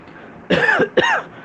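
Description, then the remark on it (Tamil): Two quick, harsh coughs, the second following right after the first, with no talking around them. “அப்படின்னு இருமல் வந்துருத்துனா உடனே ட்ரையாக இருக்கா எவன்கிட்ட தொத்திருச்சா உள்ளே வந்துருச்சா”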